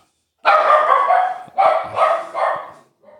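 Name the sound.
dog barking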